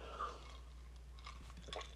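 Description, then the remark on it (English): Quiet sipping of an apple whiskey drink with a little splash of apple cider: a few soft wet mouth sounds and a brief slurp toward the end, heard alone against a low steady hum. “I am sipping on uh, a whiskey.”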